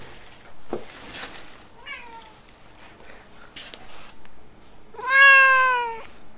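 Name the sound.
cat meowing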